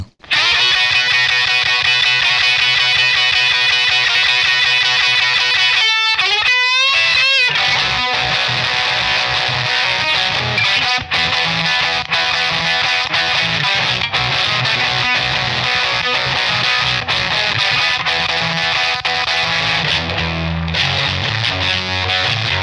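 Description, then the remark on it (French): A loud, heavily distorted electric guitar plays a riff alone. It is plugged into a mixing console with the console's preamp saturated, giving a fuzzy tone. It has sustained chords, a few sliding bends early on and choppy strummed hits that continue to the end. “mais en branchant la guitare dans la console, en saturant le préampli de, de, la console et en enregistrant ensuite ce son.”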